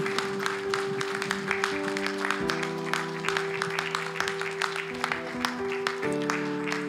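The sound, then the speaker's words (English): A crowd applauds steadily throughout to thank people who came forward, dense overlapping clapping, with sustained music or organ-like chords playing underneath. “Uh, and why don't you give these guys a great round of applause as a way of just thanking.”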